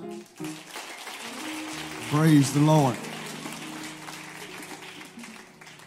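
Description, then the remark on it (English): Steady applause at a church service honoring the pastor, the bishop and their families: a dense patter of many hands clapping continuously throughout, with a man's voice briefly calling out over it midway. “could you give them a hand clap tonight?”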